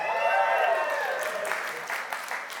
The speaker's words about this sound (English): Well, Jake and his team clapped a lot more than you just did.